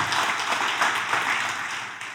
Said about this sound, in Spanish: Un aplauso con ganas al Señor, claro que sí.